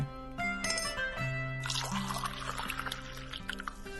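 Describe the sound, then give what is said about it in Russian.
Coffee pours steadily into a cup, a bubbling, splashing stream that starts partway through and continues to the end, over soft tonal background music. “Вам налить кофе?”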